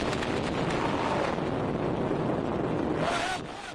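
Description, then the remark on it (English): A heavy, continuous roar and rumble from airstrikes by Assad government jets in Syria, loud and dense throughout, with a faint rising whine near the end before the din eases slightly. “These are some of the most intense airstrikes by the Assad government's jets in three weeks.”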